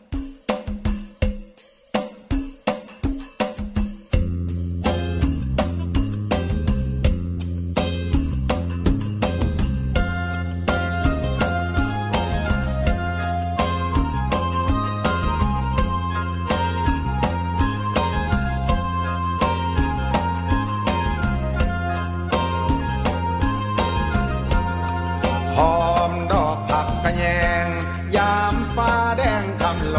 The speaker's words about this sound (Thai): ผมนำบทเพลงเพราะๆมาฝากคุณผู้ฟังกันก่อน ก่อนที่จะไปติดตามเรื่องราวที่น่าสนใจที่นำมาฝากกันในรายการ กับเราในวันนี้ เพลงเพราะๆอะไรบ้างไปรับฟังกันก่อนเลยนะครับ